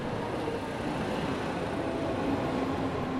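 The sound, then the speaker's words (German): A U-Bahn subway train rumbles steadily, a dense continuous roar of wheels and motor with a faint tonal hum, loud and unbroken throughout with no voices. “Jetzt hört ihr natürlich wieder, die Bahn ist wieder da.”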